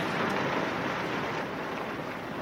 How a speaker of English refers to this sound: The balloon makes this noise of like, it's like plastic moving through the air. You can like hear it like flapping kind of.